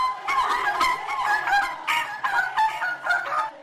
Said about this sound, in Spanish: Estas son las gaviotas del estadio de fútbol de Balaídos. Su sentimiento celtiña es tan fuerte que cantan la riancheira con el resto del público.